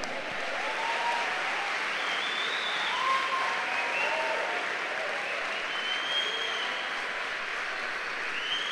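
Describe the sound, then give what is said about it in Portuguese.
Sustained applause from a large crowd applauding the Lord during a sermon, a dense, steady wash of clapping with a few faint raised voices and cheers rising above it throughout. “Se alguém crê, aplauda ao Senhor.”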